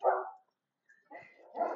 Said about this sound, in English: I'm just, uh, I mean, I know those dogs are doing their job, but